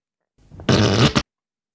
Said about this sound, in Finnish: No siis hän pystyy laittamaan tuommoisen niin kuvitteellisen pierutyynyn äh, ihan mille tahansa penkille tavallaan. Ja aina kun siihen joku istuu, niin kuuluu.